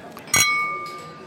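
A single bright clink of glasses touching in a toast, ringing on with a sustained high tone that fades slowly, with faint room chatter beneath.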